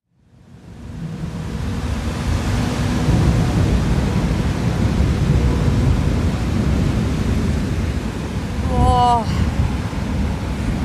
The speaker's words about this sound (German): Donner, Blitz, starker Regen, starker Wind. Wir haben uns jetzt gerade unter, eine, unter das Dach einer Tankstelle gerettet.